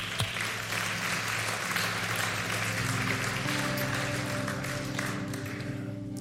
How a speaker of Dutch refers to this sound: Geef ze een hartelijk applaus.